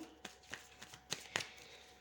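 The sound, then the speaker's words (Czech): Tarot cards being shuffled for a tarot reading, a handful of crisp, papery snaps and riffles spaced irregularly over a couple of seconds, with no one speaking. “Uh, beru, teď beru do ruky tarot a podíváme se přes tarot.”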